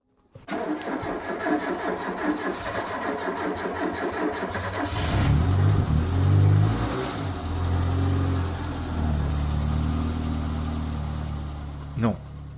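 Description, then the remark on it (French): A car engine cranks rhythmically for several seconds, then catches and roars into a loud rev before settling into a steady, rumbling idle. “Non, non, c'est pas non plus une histoire de voiture qui démarre.”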